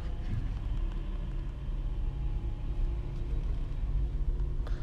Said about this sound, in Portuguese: Estou no trânsito à porta do clube.